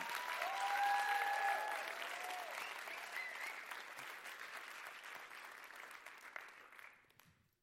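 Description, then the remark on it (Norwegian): A crowd claps steadily, a dense wash of applause that starts strong, slowly thins and fades out after about seven seconds, with a few brief whistles or cheers early on. “Skal vi gi broderen en skikkelig applaus?”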